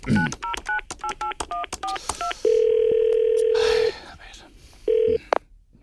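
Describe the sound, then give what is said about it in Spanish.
A rapid sequence of about a dozen short touch-tone beeps as a telephone number is dialed to call a man's son, followed by a long steady tone and then a brief second tone, clear with no talking. “Así que vamos a llamarle al teléfono.”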